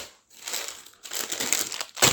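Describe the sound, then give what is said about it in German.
Crinkling of a plastic bag of licorice, bought at a Swedish furniture store, as it is handed over, fairly loud, in several irregular bursts of rustling and crackling with brief pauses between them, no voices. “Ja, das war eine Tüte Lakritz aus dem.”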